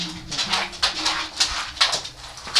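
A three-year-old labradoodle dog whimpers and whines in a steady series of short, breathy bursts, moderately loud, with no one talking over it.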